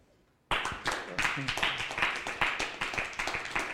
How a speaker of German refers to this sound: Ja, wir haben ja hier Publikum und das Publikum äh, zollt dir bestimmt einen Beifall.